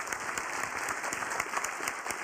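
An audience applauds steadily, a dense wash of many hands clapping at a fairly even level throughout, with no voices standing out.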